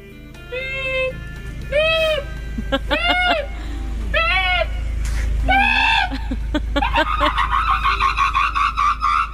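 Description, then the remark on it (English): A man hanging out of the boot of a car imitates a parking sensor with his voice: separate nasal beeps at first, then quicker and quicker, ending in a rapid, almost continuous run of beeps, fairly loud. “So he's basically um, doing the sound effects of a parking sensor while he's hanging out of the boot.”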